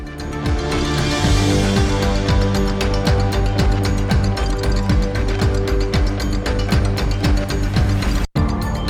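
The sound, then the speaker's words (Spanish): A loud, busy instrumental radio programme theme tune with sustained low notes over a steady, ratcheting rhythmic pulse, playing on its own without voices and cutting out abruptly for an instant near the end. “Están escuchando la sintonía de Vive Castilla y León.”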